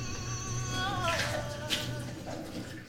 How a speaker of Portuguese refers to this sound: Agora a vida tem um som diferente. Para mim, tá um pouco mais assim. Com meu namorado lavando a louça enquanto escuta fado.